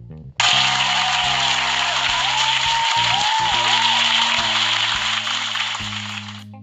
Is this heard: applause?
yes